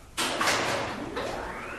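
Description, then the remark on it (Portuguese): A door on a metal contraption opens with a sudden start as a bell rings, then a steady scraping, sliding rush that rises and trails off over about two seconds, moderately loud, with no voices. “A geringonça permaneceu por alguns momentos em silêncio, para logo em seguida uma porta se abrir mediante a um sino tocado.”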